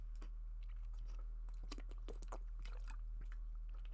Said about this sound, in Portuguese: Pausa para beber água